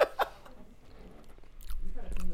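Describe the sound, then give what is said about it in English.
Close, wet munching of someone chewing macaroni and cheese right against the mic, a few crunchy bites at the start, with murmured voices and soft laughter in the background. “Everybody can hear you fucking munching, my nigga.”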